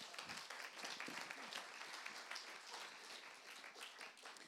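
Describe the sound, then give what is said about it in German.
A church audience applauds steadily, dense overlapping claps forming a continuous wash of sound that stays fairly even throughout, with no voices standing out. “Geben wir einen Applaus”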